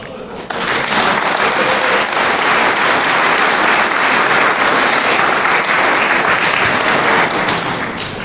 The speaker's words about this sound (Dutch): Voor die royale, nee zeer royale steun van de gemeente Soest durf ik u, dames en heren aanwezigen, te vragen om een waarderend applaus.